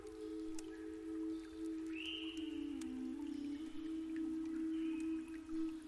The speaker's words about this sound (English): A small babbling brook is nearby, and you can hear the water flowing And with each droplet of water that you hear, you can relax a little bit more.